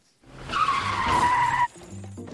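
A loud tire screech holds for about a second as a car skids, then cuts off abruptly as the car collides with a truck, leaving a low rumbling aftermath.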